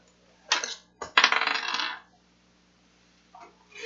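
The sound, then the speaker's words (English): Dice clatter across a hard tabletop: a short rattle, then a longer tumbling roll that settles after about a second, with a faint final clack near the end. The roll comes up a one. “rolled a one.”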